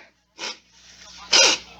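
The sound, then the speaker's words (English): A sneeze made away from the microphone: a short, breathy intake followed by a louder, sharp burst with a brief voiced edge, heard alone without any talking. “Don't worry, I did not sneeze into the microphone because I'm not disgusting like that.”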